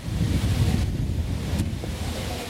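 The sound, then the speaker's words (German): Strong wind roars steadily outdoors, buffeting the microphone with a constant low rumble and gusty texture, with a faint wash like surf in the background and no one speaking. “Schön Wind, frisch. Ja, ja, ganz schön windig.”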